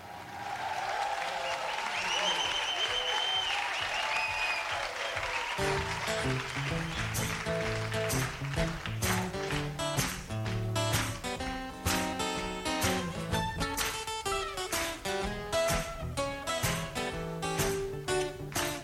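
A live song recording opens with crowd applause and cheering, then a full band kicks in with steady rhythmic strums and bright melodic lines, loud and close, carrying on through the rest.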